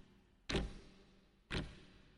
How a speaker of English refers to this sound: They got to Florida a week early, give themselves a chance to do some rides, try out the wetsuit in the ocean, and watch the numbers on the big countdown clock at the starting line get smaller and smaller and smaller.